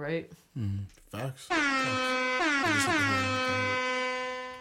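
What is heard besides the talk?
air horn blast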